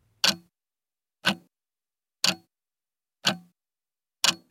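A clock ticks steadily, five sharp, evenly spaced clicks about one second apart, clear with silence between them and no voices.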